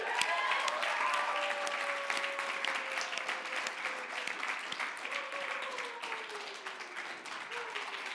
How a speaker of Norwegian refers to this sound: Er hun ikke flink, forresten? Det er første gang hun leder møte. Gi henne en applaus.